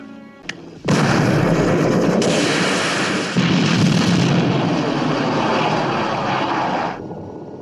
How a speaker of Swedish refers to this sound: Bestyckad med ett missilsystem kan Bond till slut oskadliggöra helikoptern som hovrar ovanför.